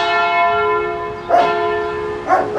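Cathedral bells peal loudly with a rich, lingering ring, fresh strikes arriving about a second apart over a sustained wash of overlapping tones.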